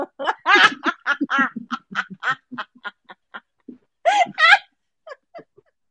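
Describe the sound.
A person imitates a goose with a rapid run of nasal, honking squawks, fairly loud. After a short pause come two stronger honks, then a few faint trailing ones.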